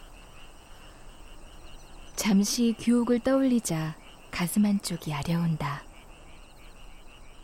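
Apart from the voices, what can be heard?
frogs croaking at night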